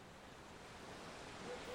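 Ocean waves wash steadily onto the shore, a continuous broad hiss of surf that swells slightly toward the end, with no voices present.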